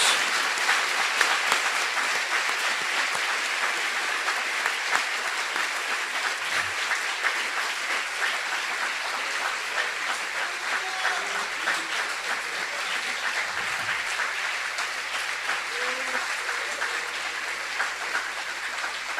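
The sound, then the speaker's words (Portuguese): A church audience applauds God steadily for about twenty seconds, a dense, even wash of many hands clapping at constant loudness with no voices standing out. “Vamos bater palmas nesse né, mão.”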